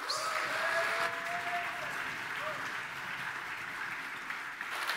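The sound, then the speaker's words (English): A church audience applauding steadily to welcome a guest speaker on his last visit, a broad sustained wash of clapping from many hands that holds even throughout, warm, continuous applause and no talking. “Let's give him one last warm Pacific Baptist welcome as he comes.”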